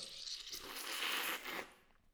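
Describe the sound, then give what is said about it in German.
A bottle of fizzy lemonade, sealed with a thumb over its opening, is shaken hard to stir up the sediment settled at the bottom, making a steady hissy, sloshing rush of noise for about a second and a half before it quickly fades. “Äh, und jetzt schüttel ich das mit meinem Daumen oben drin und dann.”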